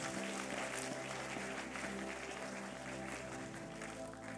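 An audience applauds steadily for a speaker, a dense wash of many hands clapping at even loudness for several seconds, with no voices standing out.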